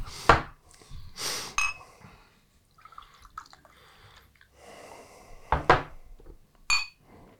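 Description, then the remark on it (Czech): Beer pours into glasses in short splashy bursts, with sharp glassy clinks and knocks as bottles and glasses touch, close by and fairly loud, with no talking. “My si tady taky naléme.”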